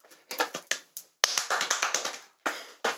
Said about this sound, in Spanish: eso fueron mi aplauso no, no de la otra persona.